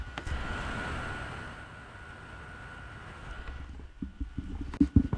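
An airplane flies overhead past the house, a broad rumbling roar that holds steady for a few seconds, then slowly fades away, leaving a few faint knocks and rustles at the end.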